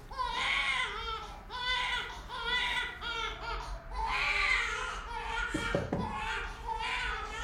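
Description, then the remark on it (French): A baby girl cries continuously in long wailing bursts with short breaths between them, loud, with a brief clattering knock partway through. “C'est ma fille qui est là, je crois qu'elle pleure.”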